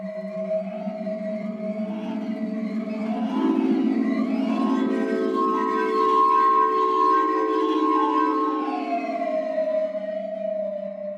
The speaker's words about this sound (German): Zu schwer zum Tragen sind sie. Die Klangsteine von Klaus Fessmann, die am Sound, am Klang selbst rühren.